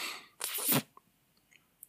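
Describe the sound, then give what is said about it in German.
A single sharp sneeze bursts out, a quick explosive blast lasting under half a second, followed by near silence with a few faint clicks. “Aber ja, sonst Allergie ist natürlich und Niesen, ja, aber das stört mich gar nicht so krass, muss ich ehrlich sagen.”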